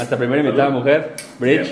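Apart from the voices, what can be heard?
shot glasses clinking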